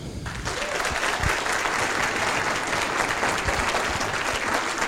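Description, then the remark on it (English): Steady audience applause at an evening event at the Hurlingham Club for Sir Stirling Moss, a dense wash of many hands clapping at an even, loud level throughout, with no voices standing out. “You better hold the applause in case I don't deserve it.”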